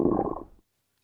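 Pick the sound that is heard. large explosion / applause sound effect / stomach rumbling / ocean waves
stomach rumbling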